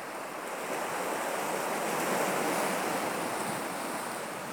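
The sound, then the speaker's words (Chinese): Steady ocean surf washes against the shore, a broad continuous hiss that swells gently toward the middle and eases off, with no voices present. “你就是这个千万年的海浪，”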